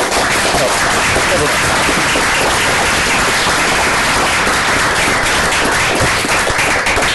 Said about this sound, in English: I was going to explain why it was a phenomenal talk, but everybody wanted to applaud.